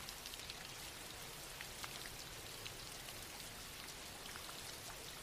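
rain falling

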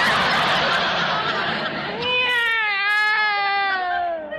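cat meowing

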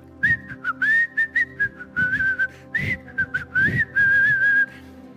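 person whistling a tune

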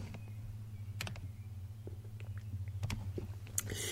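sipping water

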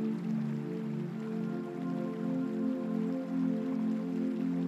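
river water flowing

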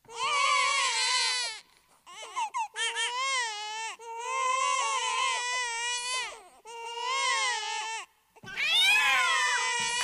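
babies crying

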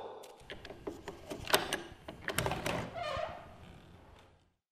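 door being unlocked

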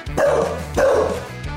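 bulldog barking

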